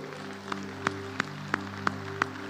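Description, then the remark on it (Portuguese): An audience at a church sermon claps for God in steady unison, six sharp, evenly spaced claps about three per second, over a sustained, humming keyboard chord. “Você não vai aplaudir a oh, Deus, não?”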